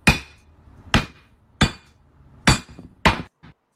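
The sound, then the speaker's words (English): A glass Crown Royal Peach whisky bottle is struck hard five times at an uneven pace, each loud knock leaving a short ringing clink with no sound of breaking, followed by one faint final tap. “I want to know how the fuck this thing is not is that, shattering.”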